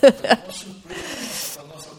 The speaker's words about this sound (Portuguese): Ai, é que eu tô fungando. As pessoas vão perceber que eu tô fungando. Ai, desculpa.